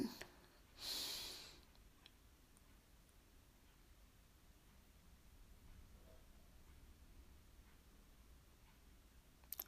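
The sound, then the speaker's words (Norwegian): One short, breathy inhale of about half a second sounds early on during a guided breathing exercise, followed by a long stretch of faint, steady background hiss with no further clear breaths. “Og så puster vi inn en gang til.”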